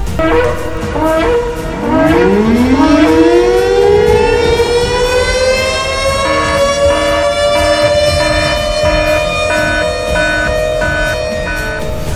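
A loud alarm siren winds up from a low growl, its pitch climbing steeply before leveling into a sustained, steady wail that holds for several seconds with a slight pulsing. No one speaks.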